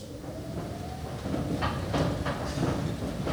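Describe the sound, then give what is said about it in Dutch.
An old, original escalator is switched on and runs with a steady low mechanical rumble, faint whine and a series of rhythmic clunks and rattles as it gets going, moderately loud. “ik zal hem even opzetten. Ja, daar gaat hij.”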